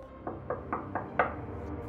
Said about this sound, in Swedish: Du hör knackning på dörren.